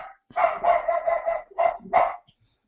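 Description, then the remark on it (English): A female dog barks excitedly in a quick burst, a rapid cluster of yaps followed by two sharper separate barks, loud with no talking. “I really don't know what she's barking at. She's kind of going crazy.”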